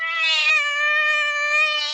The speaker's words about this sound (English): Kitty simply meows into the tiny microphone, and an artificial intelligence voice transmits this distress message to a 10 mile radius.